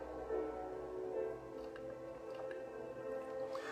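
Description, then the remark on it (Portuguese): Water is poured steadily into the speaker's own glass, trickling and splashing with a soft continuous gurgle and a few brief dripping plinks near the end. “com licença que eu vou encher um pouquinho o meu, que agora vamos frutificar e eu vou beber também.”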